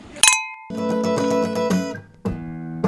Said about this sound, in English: And then clink.